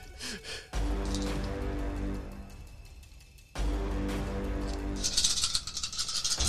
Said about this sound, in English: A lot of dice being rolled right now, guys.